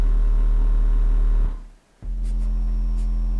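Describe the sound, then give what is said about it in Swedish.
A loud, steady low bass tone hums continuously, briefly dropping out for about half a second before returning at full strength. No voices are heard. “Men äh, vi drar upp lite, vi, när någonting kring 40 så brukar det bli ganska intensivt.”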